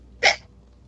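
A single quick, sharp sneeze bursts out, over in a fraction of a second, with quiet before and after and no one talking.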